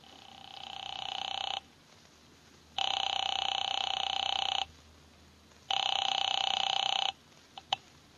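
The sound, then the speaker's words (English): After a phone number is dialed, a telephone ringback tone sounds three times, steady buzzing rings about a second and a half long with short silent gaps, followed by a couple of sharp clicks as the line is picked up. “He had just dialed a phone number”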